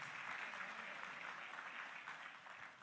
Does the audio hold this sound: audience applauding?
yes